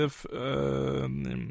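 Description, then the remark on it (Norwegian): A small boy who is about to be put to bed whines and fusses in the background in one drawn-out, moaning cry that wavers in pitch, fairly clear, with no other talking over it. “hvis du hører noe barn i bakgrunnen her, så er det en eh, liten en som skal legge seg. Han er litt sur, uh, men uh, så bare beklager det.”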